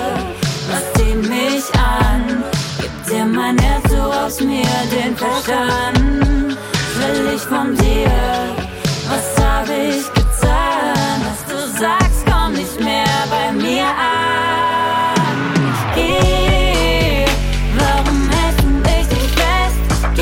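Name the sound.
pop song playing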